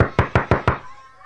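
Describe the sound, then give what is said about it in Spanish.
Five loud, rapid knocks on a door in an even rhythm, solid, made by a mother standing outside the door, followed by a brief fading resonance and quiet. “Mientras mamá estaba fuera de la puerta, esperaba y tocaba muy fuerte.”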